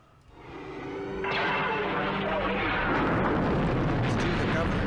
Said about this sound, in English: With mighty flash, the beam bursts bright and shrill, and Alderaan is shattered for their eyes.